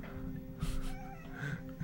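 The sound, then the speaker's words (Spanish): A cat gives a couple of soft, brief meows, the second slightly higher and more drawn out, heard faintly over a steady low background hum with no one talking. “Ah, ahora sí está hablando.”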